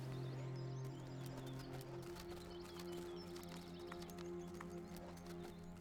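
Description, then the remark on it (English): Hooves of packed horses clip-clop in a steady, uneven rhythm as they move off, clear, with low ambient rumble and occasional chirping birds in the background. “You pack the horses. And then come on. Let's get going.”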